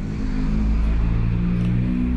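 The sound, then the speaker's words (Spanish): A truck passing by outside in the morning, its heavy engine rumbling steadily, a deep, loud drone with low tonal hum that holds throughout without fading, no voices present. “el problema de grabar en la mañana es que pasan muchos camiones y se va a escuchar ahí el sonido.”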